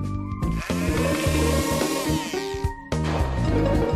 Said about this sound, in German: Das mache ich zu Hause auch. Also Wasser auf die Sojabohnen, und zum Kleinmachen benutze ich einen Pürierstab.